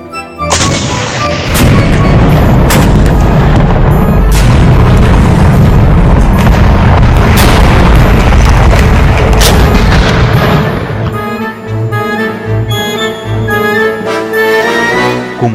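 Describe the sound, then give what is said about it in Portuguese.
Heavy gunfire and booming cannon shots from German tanks and anti-tank guns firing on British units crash repeatedly in a dense, loud barrage, with sharp reports over a continuous rumble that eases toward the end, leaving sporadic blasts. “Os disparos dos tanques e canhões antitanques alemães continuavam a fazer devastadores estragos nas unidades britânicas.”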